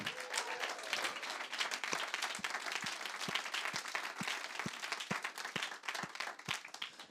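Sustained applause from an audience for a helper of the worship ministry finishing his practical semester, a dense steady wash of many hands clapping at a fairly loud, even level, with a few sharper individual claps standing out rhythmically throughout.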